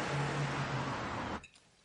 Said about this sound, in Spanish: El coche se aleja.